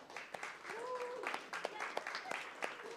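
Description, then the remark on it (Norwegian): An audience applauds: a dense, steady patter of many hands clapping at moderate loudness throughout, with a few voices calling out over it. “skal vi gi dem en klapp.”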